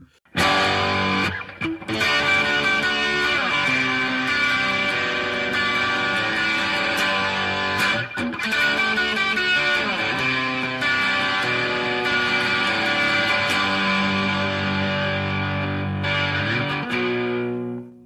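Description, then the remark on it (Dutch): A loud, distorted electric guitar riff played on a Gibson, showing how the guitar originally sounded, repeats a chunky rhythmic pattern of bright, ringing chords with brief breaks, lasting about eighteen seconds. No one speaks. “En die laat dan even zelf horen hoe die gitaar eigenlijk origineel klonk.”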